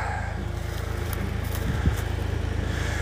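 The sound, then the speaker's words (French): A tractor's heavy engine rumbles steadily with a low, pulsing throb as it drives past in a forest, holding a constant loudness throughout with a faint rattle on top. “Parce que là, il y a Monsieur Tracteur qui passe, j'ai pas envie qu'il y ait un accident.”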